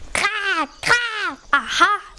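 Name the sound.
crow cawing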